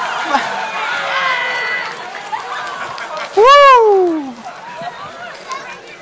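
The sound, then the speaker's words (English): A group of children pat steadily to make a rain-like storm patter, with chatter throughout and a loud, sweeping vocal whoop from one voice midway. “And then, let's get some petting going, kids. Okay, and we're getting a little bit louder.”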